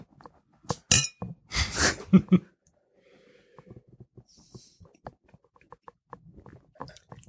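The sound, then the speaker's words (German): Beer glasses clink together in a toast, a couple of bright chinks amid rustling, followed by quiet sniffs, soft breathing and small handling noises. “Ich bin gespannt. Ich sag mal Prost. Cheers.”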